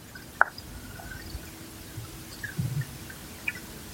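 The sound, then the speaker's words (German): Soft, muffled water sounds picked up by an underwater microphone lowered on a cable about one meter long at the bank of the Spree river: a low steady murmur with an occasional gentle drip or plop, quiet, with no voices. The river flows very slowly. “Aber auch so ein ganz sanftes Plätschern.”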